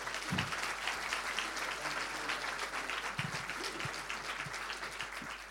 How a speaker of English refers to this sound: Okay, great. Can you give them a round of applause before they start?